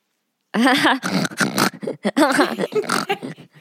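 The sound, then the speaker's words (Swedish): A voice imitates a pig, making a run of snorting, grunting noises in close, loud bursts that rise and fall over a few seconds, with no other talk. “man börjar låta som en gris, liksom.”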